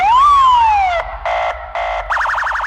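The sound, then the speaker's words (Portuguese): A loud police car siren cycles through patterns: a rising-and-falling whoop, two short blaring blasts, then a rapid warbling yelp, as the police car stops a man on his way in the early morning, with no voices. “E pra azar de Tizinho, no meio do caminho ele foi parado por uma viatura.”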